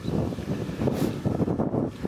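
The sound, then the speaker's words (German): Steady, rumbling wind buffeting a microphone, a dense low-frequency roar with gusty swells that continues throughout at a fairly loud level, with no clear voices. “der Wind hat zugenommen.”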